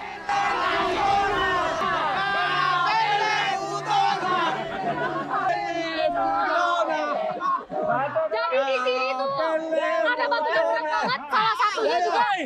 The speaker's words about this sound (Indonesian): Puluhan laki-laki pun menarik batu menhir, yang artinya batu panjang. Dengar mereka berteriak bersama. Mitologi agar batunya terangkat katanya.